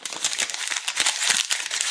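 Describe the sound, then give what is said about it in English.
Paper being crunched and crinkled, a dense run of sharp, crackling rustles with irregular bursts throughout, no voices. “Because that crunching paper sound has called us away.”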